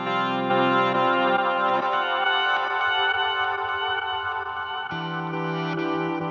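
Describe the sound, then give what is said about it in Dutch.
Electric guitar through a reverse effect pedal, sustained chords swelling in with no sharp attacks, smeared and echoing, with a lower shift near the end. No talking. “Dus eh short, dan, dan heb ik hier een, wat is het? Eh, reverse.”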